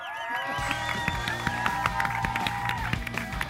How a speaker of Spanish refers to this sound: Y esto está pasando en Santiago de Chile, Centro Parque, séptima Feria Vida, Feria de Viajes y Vacaciones por Chile. Y además con un tremendo público que se hace sentir con este aplauso espontáneo.